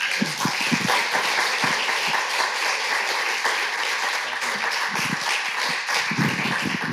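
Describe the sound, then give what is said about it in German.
An audience applauds steadily for several seconds in the morning, welcoming a guest speaker: dense overlapping claps filling the space at a consistent, fairly loud level, with a few sharper individual claps standing out. “Und äh, ich möchte euch bitten, äh, begrüßt ihn mal mit einem richtig fetten Applaus.”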